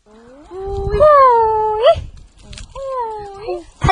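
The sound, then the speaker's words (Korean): Two drawn-out, wavering whistle-like breaths from a Korean haenyeo (female sea diver) surfacing after holding her breath underwater, each sliding upward sharply at the end, loud, with a low rumble of water or wind underneath. “해녀들은 바다에서 나오면 특이하게 숨을 쉽니다.”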